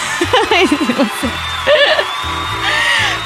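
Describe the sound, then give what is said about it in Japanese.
Cheering from a group swells over a few seconds as a body age result of 17 is announced: high whoops and yelling voices, plus a sustained bright roar that grows fuller toward the end. “その体験後の体内年齢は、17歳 !1 歳若返りましたおお歓声がさらに大にありがとうございます”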